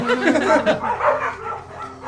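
A dog barks in a few quick, loud bursts, mixed with people laughing and chattering in the background.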